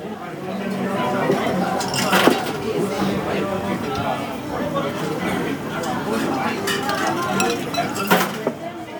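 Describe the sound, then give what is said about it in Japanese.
The busy Iseya Honten standing bar, its counter area semi-outdoor, with a steady wash of crowd chatter, punctuated by occasional sharp clinks and clatters of dishes and glasses, a couple of them louder. “ちなみにこの伊勢屋本店は特にカウンター周りは半屋外にあるんで天気の影響を受けやすくてあの雨降ってても晴れててもうんなんかその天候の影響を受けてねなんか気持ちいいんですよね”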